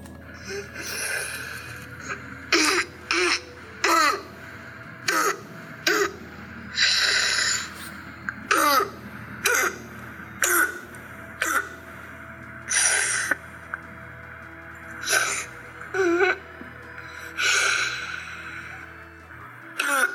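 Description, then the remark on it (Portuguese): A child's harsh, barking cough during a laryngitis attack repeats in short bursts throughout, loud, with strained, wheezy gasping breaths between the coughs. “Eu queria que vocês prestassem atenção né, nessa gravação que eu vou colocar agora de uma criança que está com uma crise de laringite para vocês ouvirem como é que é a tosse dela, tá bom?”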